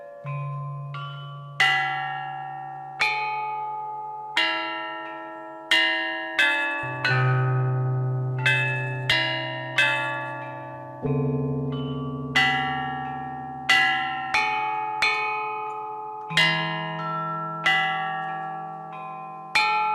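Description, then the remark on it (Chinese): Ancient Chinese bronze chime bells (bianzhong), tuned to a C major scale with a range of five and a half octaves, play a slow melody, about fifteen clear struck notes ringing out and overlapping, bright upper tones from the small bells over deep, sustained lower bells, with no voices. “编钟的音节相当于现代国际上通用的 C 大调，音域跨越五个半八度，只比现在的钢琴的高低音部各少一个八度，中心音域十二个半音齐全。”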